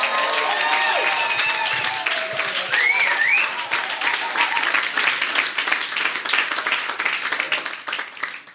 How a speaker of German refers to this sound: Das ist der absolute Hammer und deswegen gebt mal eurem Pastor mal einen fetten Applaus.